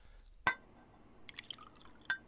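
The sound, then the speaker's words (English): Measured ingredients, vinegar and soda, poured into a glass beaker during a class experiment: a sharp ringing clink of glass, then a few brief splashes and drips, fairly quiet, with no voices. “Please pour your measured ingredients into the beaker and watch the magic happen.”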